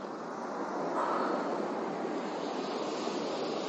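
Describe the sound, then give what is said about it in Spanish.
Waves wash steadily onto a beach covered with stones of various sizes, a continuous hissing rush of water that swells slightly after the first second and holds at an even, moderate loudness with no voices. “El agua llega a la orilla, la cual está llena de piedras de diferentes tamaños.”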